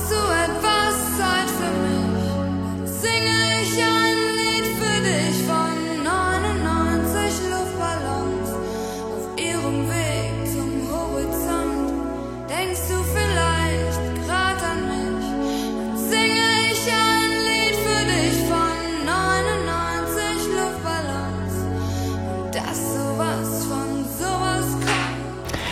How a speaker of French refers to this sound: On vient d'entendre le choix musical de notre invité téléphonique